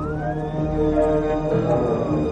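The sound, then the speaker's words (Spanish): A fire engine siren wails steadily as the truck drives along a street, its tone gliding up and down over a heavy engine rumble, loud throughout with no voices. “Sykes coge una pistola, se la guarda en el bolsillo y presta atención al ruido de las sirenas”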